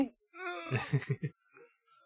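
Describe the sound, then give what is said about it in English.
A loud, startled goat bleat rises sharply, then breaks into a rapid, quavering stutter of four or five pulses before trailing off into faint, softer sounds. “Have you not not seen a goat get scared?”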